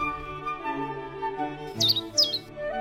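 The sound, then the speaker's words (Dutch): A bird with an orange breast calls with two quick, high, bright chirps about half a second apart, heard over a steady layered tonal background; no one speaks. “Een van de mooiste vogels die er is natuurlijk, met oranje borst.”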